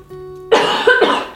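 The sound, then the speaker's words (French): A burst of coughing: a sharp first cough followed by two or three quicker, raspy coughs, fairly loud, with no talking. “Attends, je vais tousser.”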